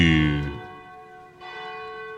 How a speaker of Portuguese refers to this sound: Bate os sinos da Catedral da Nossa Senhora de Aparecida.